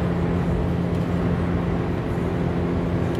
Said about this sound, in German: Aber regnet es im Moment gar nicht. Es ist nur so ein bisschen feucht und kommt immer nur so ein Sprühnebel von den äh, entgegenfahrenden Autos an.